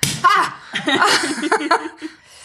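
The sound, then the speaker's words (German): A bottle of zero-dosage sparkling wine, with no added sugar, is carefully opened; the cork pops with a short, sharp smack near the start, followed by excited laughter and chatter from people. “ich mache ihn jetzt mal vorsichtig auf, damit wir deine Esszimmer-Tischlampe nicht.”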